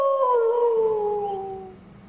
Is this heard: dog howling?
yes